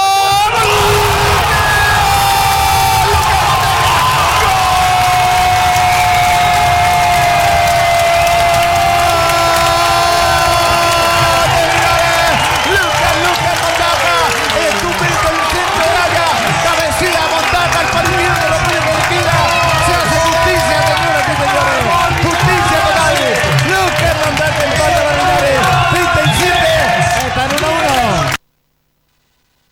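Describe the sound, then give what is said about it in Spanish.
A huge crowd in a nearly full football stadium roars and cheers nonstop after a corner-kick cross and header, a loud, dense wall of shouting and yelling that swells in waves for nearly thirty seconds before cutting off abruptly. “El relato se pierde por el público, allí es impresionante, ¿eh?”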